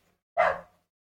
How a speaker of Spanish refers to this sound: Vamos a esperar que termine de ladrar el perro.